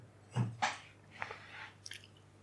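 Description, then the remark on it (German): Someone takes a drink: a few wet, separate gulps and swallowing noises over about two seconds, fairly quiet, with no talking. “So, ich trinke nochmal.”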